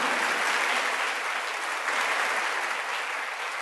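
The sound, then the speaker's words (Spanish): A church audience applauding the Lord together, a steady, dense wash of clapping that holds at an even loudness throughout with no voices standing out. “Un aplauso al Señor.”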